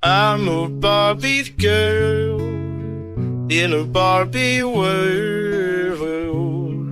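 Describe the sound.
An AI-generated voice imitating a singer sings a bright, bouncy pop melody over a steady synth backing track, the vocal loud and upfront with short gaps between phrases.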